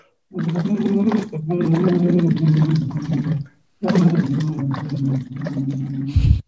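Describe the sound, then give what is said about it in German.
Voiced humming blown through a tube into a bottle of water as a voice exercise, producing a steady bubbling gurgle with a held pitch, in two long bursts separated by a short pause, fairly loud. “es gibt diese Blubberschläuche, kann man auch in der Sprechbar bestellen und dann blubber ich da rein”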